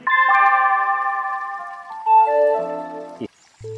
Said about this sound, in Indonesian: Kalian telah mendengar suara bel sekolah.